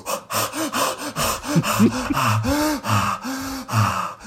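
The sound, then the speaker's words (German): A person performs rapid, sharp gasping breaths under a cold shower, about ten quick voiced intakes and exhales in a steady, urgent rhythm, fairly loud. “höre das übrigens in der Früh, weil er steht vor mir auf und ich wache nicht vom Wecker auf, sondern vom Schnaufen.”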